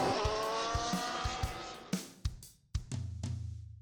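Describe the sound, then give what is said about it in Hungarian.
Racing cars roar off from a standing start as the start lights go out, engines screaming at high revs with sharp gear-change bursts as the pack accelerates away, loud, then a deeper engine drone settles in. “It's lights out and away we go. Go, go, go!”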